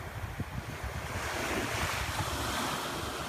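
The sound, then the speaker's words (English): Ocean waves break and wash onto a shore in a steady, continuous roar, with gusty wind rumbling across the microphone. No voices are heard. “He turns from the ocean and begins walking down the flagstone pathway towards the sprawling gardens at the southern end of the grounds.”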